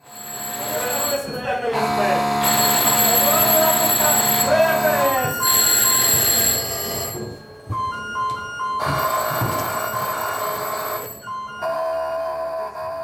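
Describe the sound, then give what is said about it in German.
Emergency drill in a Ukrainian nuclear power plant control room, simulating an air raid that destroyed the grid connection: several alarm tones and ringing bells sound continuously and loudly, overlapping one another, while people run back and forth, call out orders and leaf through folders. “Die Leute liefen hin und her, riefen sich Befehle zu, blätterten in ihren Ordnern.”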